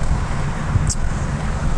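Steady, loud wind on a fine, windy day rumbles and buffets against the microphone throughout, a constant low roar with a brief faint hiss near the middle and no voices.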